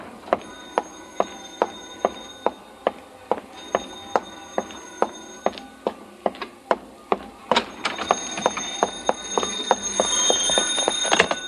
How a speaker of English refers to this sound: I gotta go. That's my phone.